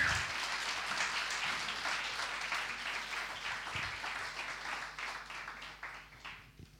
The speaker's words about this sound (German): Ja, ein, ein riesen Dankeschön an euch. Das habt ihr echt richtig super gemacht. Genau, darf man gern nochmal applaudieren.